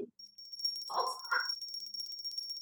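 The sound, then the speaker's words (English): A bell rings steadily with a rapid, trilling shimmer that lasts the whole moment, fairly clear, signalling a switch to a new segment, while a short, rough mid-pitched sound cuts in briefly near the middle. “The bell is going to come in. When the bell comes in, you know, that means we switch gears.”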